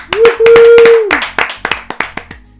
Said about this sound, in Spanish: Eso, aplausos